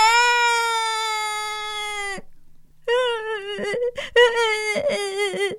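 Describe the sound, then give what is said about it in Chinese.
A voice imitates a little boy in a story crying loudly: one long, high, steady wail lasting about two seconds, a short pause, then a run of broken, sobbing wails that rise and fall in pitch, growing louder. “他的哭声越来越大，越来越大，身旁所有的人都不知道他怎么了。”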